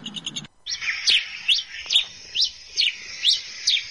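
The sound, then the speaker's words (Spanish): Several birds chirp and trill, with a run of bright, evenly spaced rising chirps over a steady high twittering background, clear, with no voices. “Y ahora vamos a escuchar el sonido, los hermosos y dulces y suaves sonidos de distintos pájaros. Vamos a escuchar algunos trinos diferentes, a ver si podemos, si podemos ubicarlos y diferenciarlos perfectamente.”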